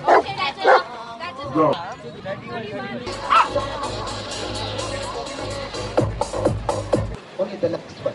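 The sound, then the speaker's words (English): Dogs bark and yip in quick, loud bursts amid a noisy crowd at a dog show in India, then the barking thins out beneath steady babble and a low, droning hum. “Visitors, human and canine, are treated to a live rock band, free vaccinations, and a catwalk for celebrity dogs at the show, the first of its kind in India.”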